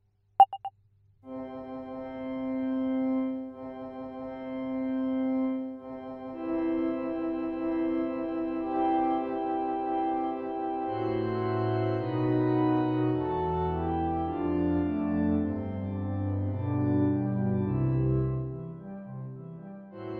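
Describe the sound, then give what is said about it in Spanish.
A wedding march plays after a brief click, with long held organ-like chords at first, then fuller, faster-moving harmonies, steady and moderately loud with no voices. “Me encantaría escuchar la marcha nupcial”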